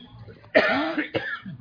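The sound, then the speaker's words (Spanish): A harsh cough bursts out, then a second, shorter cough follows about half a second later, with a bit of throaty rasp trailing off at the end. “O sea, esa pasión viene por naturaleza y voy a toser.”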